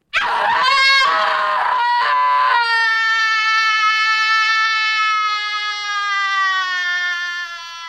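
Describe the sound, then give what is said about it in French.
A loud soprano voice screams in an avant-garde vocal composition from 1961, starting with a few ragged, wavering cries before settling into one long sustained high note that slowly fades near the end, with no talking. “… demandait dans sa composition pour voix de soprano hurler contre le vent, contre le mur, contre le ciel”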